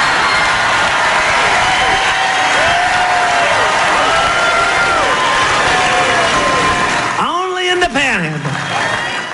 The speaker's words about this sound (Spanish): Que le disparen y la gente eh, eh, está en una ovación eufórica, ¿no?